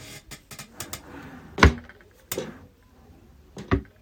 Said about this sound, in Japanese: このね、引き出しをね、開けたりとか閉めたりするのが、なんかこう、プラスチックではない、こう、木のぬくもり感を感じてですね、すごくいいなと思ってます。